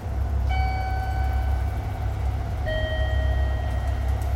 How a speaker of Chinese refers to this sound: 你刚刚听到的这个是在日本非常非常常见的声音，它叫做导盲铃。